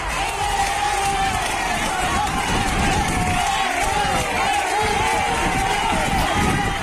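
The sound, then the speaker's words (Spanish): A dense, steady roar of crowd noise at a town council investiture session in Medina Sidonia, Cádiz, fills the whole stretch, many voices shouting and chattering at once with scattered whoops and cheers rising out of the din, loud and continuous throughout. “Pues ese es el sonido del pleno de investidura de esa constitución del ayuntamiento”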